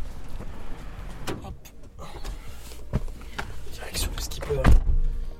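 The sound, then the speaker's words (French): A car arrives and parks at the port of Bonport in Argelès-sur-Mer, with mechanical clicks and rustling, a low engine rumble, and a heavy door thunk near the end; faint voices murmur in the background. “En seulement 15 minutes en voiture, nous voilà arrivés à Bonport.”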